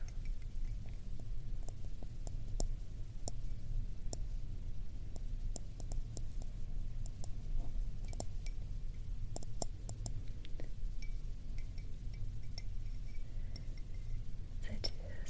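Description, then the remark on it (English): Gentle clinking and tapping on porcelain or some other ceramics, a steady scatter of light, delicate ticks over a low hum, soft with no clear rhythm. “sound that's very delicate and fragile, almost like chimes or something, right?”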